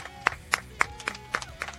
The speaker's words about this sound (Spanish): Y voy a pedir un aplauso muy fuerte para el señor